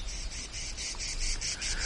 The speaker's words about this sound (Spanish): El frotar de las alas de una chicharra le hizo alzar la cabeza.